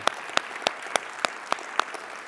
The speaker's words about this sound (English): They've just been incredibly helpful and thankful. And so could we just thank them by giving them a applaud? seriously.